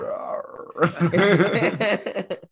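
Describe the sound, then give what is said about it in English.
A person imitates the MGM lion roar, a loud, raspy, growling vocal roar held for under two seconds after a softer voiced lead-in, then breaking off in rough bursts. “gonna start roaring yeah, right. like the MGM.”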